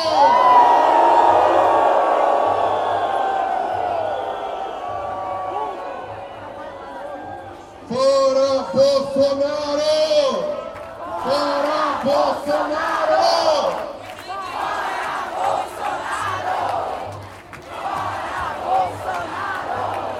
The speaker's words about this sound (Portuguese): Uma vaia, uma vaia muito grande para o ministro da Educação. Agora, essa tem que ser maior. Uma vaia Bolsonaro!